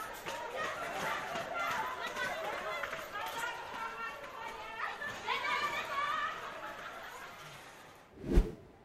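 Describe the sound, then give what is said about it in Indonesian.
A bustling crowd runs into a mall as it opens, many excited voices shouting and chattering over one another in a busy commotion, ending with a single loud thump. “Orang kayaknya kangen banget sama mall tuh sampai lari-lari kayak gitu.”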